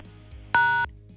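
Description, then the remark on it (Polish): A single short electronic beep over a phone line, fairly loud and lasting about a third of a second, signalling an incoming SMS, with no one talking. “Dobrze, to nie był telefon. Jesteś Marcinie z nami? Tak, jestem. Okej, okay, ktoś nam wysłał SMS-a”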